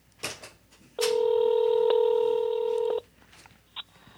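telephone dialing tones

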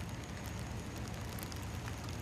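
raindrops falling

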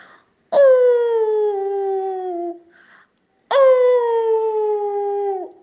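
wolf howling

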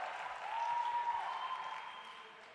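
round of applause

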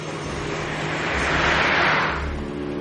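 car driving and accelerating

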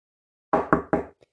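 knocking on a door

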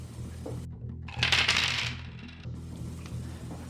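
dice being rolled

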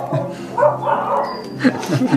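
dog barking

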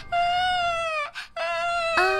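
baby crying

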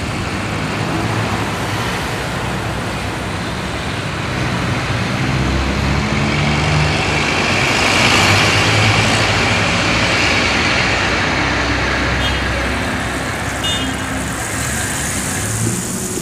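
city street traffic

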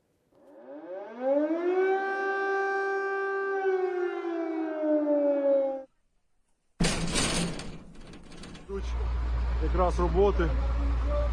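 air raid sirens wailing

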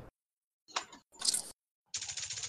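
computer keyboard typing

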